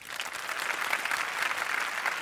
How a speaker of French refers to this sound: Applaudissez ceux qui parmi vous ont du mal à s'endormir le soir.